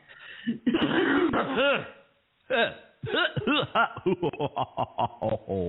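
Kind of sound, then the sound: human body sound, coughing and throat clearing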